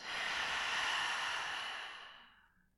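A long, deep breath blown out through the mouth, a steady airy whoosh lasting over two seconds that gradually fades away, clear with no talking.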